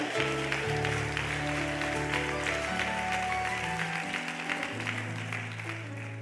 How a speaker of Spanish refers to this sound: Dale un aplauso fuerte a Jesús, aleluya.